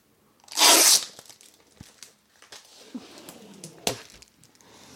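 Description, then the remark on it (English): A single loud, sharp rip of a page being torn out of a diary, lasting about half a second, followed by quieter rustling, crinkling and a couple of small clicks of handled pages. “Oh God, he's he's also ripped some pages out of other diaries.”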